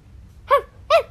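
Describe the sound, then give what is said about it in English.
A lively little dog named Bobby barks twice, two short, bright yaps spaced about half a second apart, standing out clearly over a faint low hum. “Jock would say, and Bobby would bark.”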